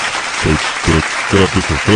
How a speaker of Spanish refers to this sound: Porque ya tenemos mezcal. Aplausos por eso.